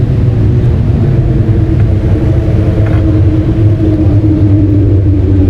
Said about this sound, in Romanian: Stai că acum trec motoarele.